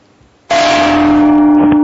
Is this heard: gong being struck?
yes